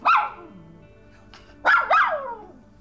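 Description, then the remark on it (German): A dog named Bruni, in its dog bed, barks three times: one sharp, slightly whiny bark, a pause of over a second, then two quick barks in a row, with no one talking. “Bruni im Hundebett.”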